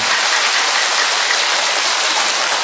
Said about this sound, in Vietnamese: cho thấy sướng không sướng thì đặt vỗ tay lên cho nó phấn khởi lên thưa anh chị em